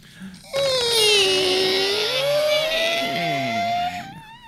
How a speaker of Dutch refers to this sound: Ik zal mijn kluisje weer even pakken. Mhm, mhm, mhm. Hier gaat de deur open.